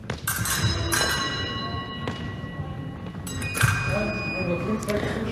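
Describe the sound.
Fencing épées clash in sharp, ringing strikes several times at a fencing tournament, with sustained electronic scoring beeps sounding between them when a point is scored, over a busy background of voices.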